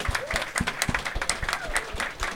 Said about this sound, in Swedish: ja, men det passar väl egentligen på sin plats att en, en stor jävla applåd till Moral Panic som ser till att det händer saker i Göteborg.